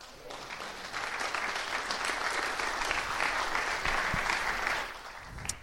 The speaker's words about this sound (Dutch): Dus kom naar hem toe en laten we hem een groot applaus geven voor wie hij is en wat hij doet.